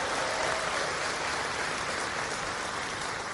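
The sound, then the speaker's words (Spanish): A steady wash of audience applause, dense and unbroken for a few seconds, with many hands clapping together at an even, moderate loudness and no voices over it. “Un aplauso al que lo está disfrutando, al que lo está aprovechando.”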